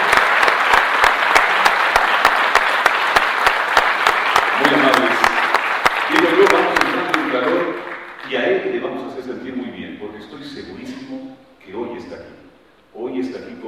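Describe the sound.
An audience, largely from Quito, applauds in honour of Luis Alberto Valencia in a loud, dense wash of many hands clapping for several seconds, then the clapping fades out as someone starts talking.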